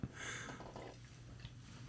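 A short, quiet pour of fizzy beer from a crowler can, a bright hissing splash for the first moment that tapers into soft foamy crackle, with no one speaking.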